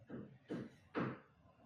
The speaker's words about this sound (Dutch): Sorry, de buren zijn ineens aan het hameren, jongens. Ja, dat hoor ik ah. hier zelf, zelfs.